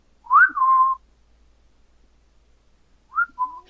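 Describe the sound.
A person whistles an imitation of an eerie two-note whistle heard at random times in a house they lived in: a rising tone sliding into a held lower note, then a pause and a shorter repeat of the same pattern, clear with no talking.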